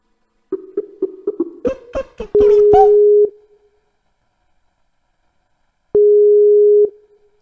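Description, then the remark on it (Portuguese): Phone keypad beeps and clicks lead into a ringing tone: a steady one-second tone, a long silent pause, then the same tone again, with no one answering. No voices. “atende essa porra, seu viado!”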